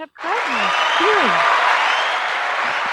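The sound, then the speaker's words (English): A crowd-noise sound effect of cheering and applauding, loud, a steady wash of clapping and shouts that swells in right away and holds at full volume, with a few rising whoops near the start. “The crowd noise. Where's the crowd?”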